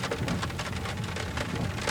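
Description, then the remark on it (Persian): Steady, dense rain pattering onto the water of a lake, a continuous hiss of countless drops with a faint low rumble underneath and no voices. “برخورد بارون با آب دریاچه رو میبینی؟”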